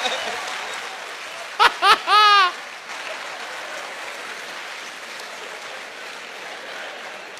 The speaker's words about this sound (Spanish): Aplauso